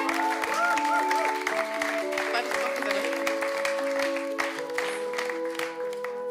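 An audience claps steadily throughout, a dense wash of applause layered over sustained keyboard chords that keep playing underneath, fairly loud and close.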